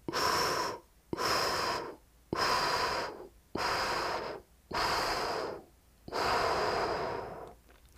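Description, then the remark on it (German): Six steady, breathy airflow sounds in a row, slow paced breaths in and out in a 4-6 breathing exercise (4 seconds in, 6 seconds out), each a rushing hiss of about a second separated by short pauses, with no talking. “4 Sekunden ein, 6 Sekunden aus.”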